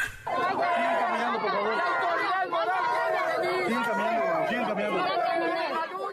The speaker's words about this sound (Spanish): Se oye como si fueran muchas personas. No son tantas. Muchas en el lugar, pero quienes gritan no son tantas.